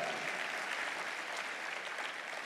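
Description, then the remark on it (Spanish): An audience breaks into sustained applause for the Lord in an afternoon service, a dense, steady wash of many hands clapping together at an even loudness for the whole stretch, with no voices standing out. “¿Cuánto le da un aplauso al Señor por eso en esta tarde?”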